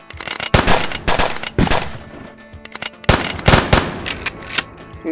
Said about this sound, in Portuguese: Vocês olharem forem olhar pra fora, vocês veem toda a população atirando